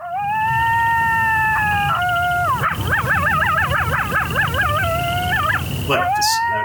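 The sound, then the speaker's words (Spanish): A coyote howls with long, steady wailing notes that break into a rapid, warbling run of yips before settling back into a sustained howl, loud over faint background rumble. “¿Cómo sonará un coyote, Álvaro?”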